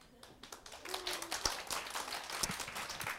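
An audience applauds, a dense patter of many hands clapping at once that stays fairly even across a few seconds, with an occasional sharper clap standing out. Nobody speaks.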